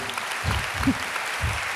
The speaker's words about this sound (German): Äh, Applaus hier für den